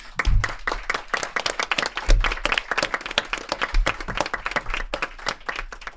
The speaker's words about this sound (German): Das ist unser Produzent und ohne den wäre das ganze Projekt nicht möglich gewesen. Bitte um einen großen Applaus.